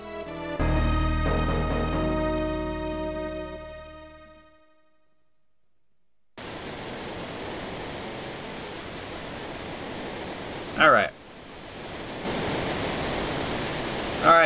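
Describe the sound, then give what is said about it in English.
A short tonal musical phrase fades into a brief silence, then a loud, steady rush of water from the Lete River takes over and continues to the end, with a sharp splash-like burst midway. “So this is the Lete River.”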